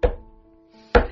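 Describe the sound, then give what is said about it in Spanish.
A paper planner is thumped down twice, about a second apart, each a sharp, solid knock with a faint ringing hum lingering between them. No voices. “Este es el ruido de mi agenda.”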